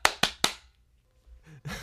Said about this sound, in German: Ey, wir müssen jetzt trotzdem einmal noch klatschen, sonst raste ich aus äh, in der Post-Pro. Ähm, okay, was Drei, klatschen? zwei, eins, klatsch!